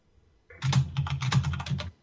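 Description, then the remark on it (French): Rapid, steady clacking of keys on a mechanical keyboard, a dense run of fairly loud keystrokes lasting over a second with no voices. “T'es tellement tapé sur ton clavier que tu m'as jamais attendu.”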